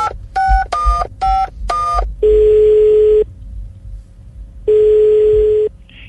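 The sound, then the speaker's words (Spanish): A telephone number is dialed to call the director of DANI: four quick touch-tone beeps of varying pitch, then two long, steady low ringback tones separated by a pause of silence. “¿Le, le marcamos?”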